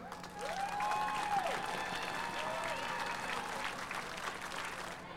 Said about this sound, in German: Vielen lieben Dank an SDAJ für diesen Redebeitrag. Ihr Lieben, genau, einmal Applaus. Auch für alle anderen Redebeiträge, die hier gerade so spontan noch gehalten wurden.